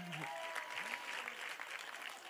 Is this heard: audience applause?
yes